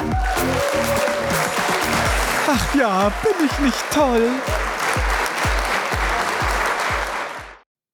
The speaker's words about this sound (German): Einen großen Applaus für Gilderoy Lockhart.